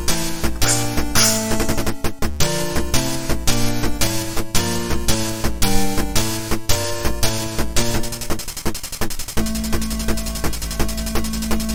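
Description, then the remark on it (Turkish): Busy chiptune music from Gyrus, a 1983 Konami arcade video game: bright, buzzy square-wave notes bounce in a syncopated rhythm, then give way to a steady sustained electronic tone near the end. Loud, with no talking. “Gyrus oyunun ismi.”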